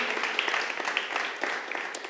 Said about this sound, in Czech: A tak pojďme ještě jednou pořádně přivítat potleskem.